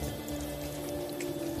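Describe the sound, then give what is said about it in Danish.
Rainwater drips in through the roof of a den during foul weather outside, a few soft scattered drops over a steady low hum and a constant wash of background noise, with no voices. “Det drypper stadig lidt ind ad taget.”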